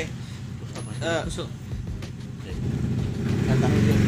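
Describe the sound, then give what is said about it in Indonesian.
A motorcycle engine rumbles at a boarding house, growing steadily louder over the last couple of seconds as it approaches, after a brief spoken interjection near the start. “sorry sorry ada motor ada gangguan biasa lah kita nih ya kan namanya hidup kos, bersosial ya kan”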